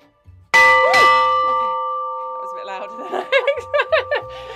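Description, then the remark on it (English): An old hand bell is struck sharply and its bright metallic tone rings on, slowly fading, while people talk over the lingering resonance. “So, which this one is, isn't the one that dongs, but we can just dong this one for”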